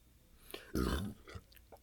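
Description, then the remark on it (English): A single short, throaty belch from someone drinking bursts out loudly, lasting under half a second, with a few faint mouth and swallowing noises before and after. “Excuse me, I belched because I'm drinking.”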